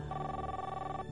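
A phone line rings on a call to the 110 police emergency number, a single steady buzzing ring tone with rich harmonics that holds evenly for about a second before cutting off, with no voices.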